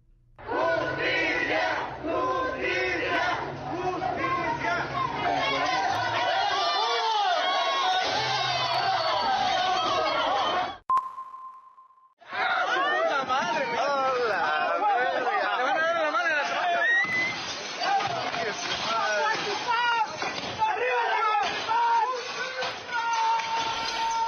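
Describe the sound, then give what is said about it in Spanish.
A furious mob of townspeople roars and shouts continuously while attacking the mayor's house in Zacuautilpan, Mexico, a chaotic wall of angry voices that cuts out abruptly for a moment with a brief tone, then surges back just as loud. “Bueno, hay parte de la turba enardecida lanzándose contra su alcalde.”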